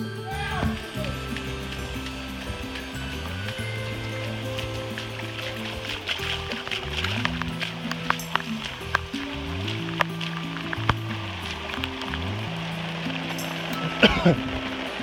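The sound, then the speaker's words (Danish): Water spatters steadily against taut tent fabric as the tent is tested to see whether it holds water, a dense hissing patter with sharp little slaps throughout, while voices and low droning tones carry on underneath. “Han fyrer telt, om det kan holde vand.”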